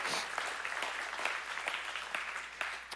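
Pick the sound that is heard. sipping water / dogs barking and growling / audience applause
audience applause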